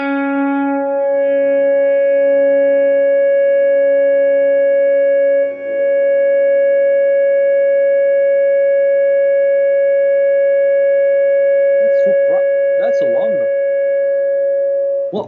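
A single long electronic note from a reverb delay effect holds steady and loud for about fifteen seconds, smeared with reverb and delay, dipping briefly partway through before a few glitchy flutters near the end.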